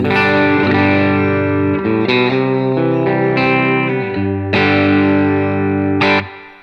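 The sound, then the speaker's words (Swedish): An electric guitar played dry through a preamp with no echo, a short run of sustained, overdriven chords, loud, with a mostly dry tone and little ambience. The last chord is cut off abruptly. “Vi tar torrt först då.”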